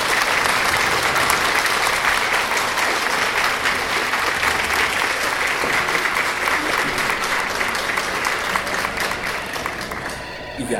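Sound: applause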